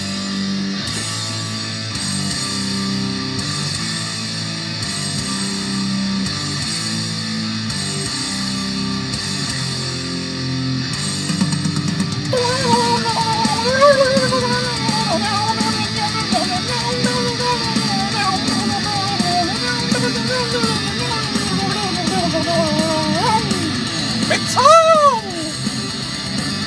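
A dense, loud heavy metal track with distorted electric guitar chugging steadily, then a wailing lead guitar line bending and soaring over the full band in the second half.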